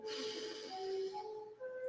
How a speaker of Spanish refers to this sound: Dejamos que fluya y regresamos nuestra atención a nuestra respiración. Inhalamos nuevamente.